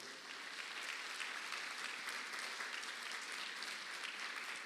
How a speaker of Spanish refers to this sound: Dale palmas fuerte al Rey de la Gloria.